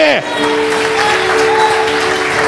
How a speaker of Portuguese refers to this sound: Esse é Jesus de Nazaré. Aplauda Ele porque Ele merece nessa noite.